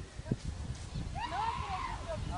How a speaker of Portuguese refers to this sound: Olha o cavalo branco aparecendo ali também do lado, olha lá!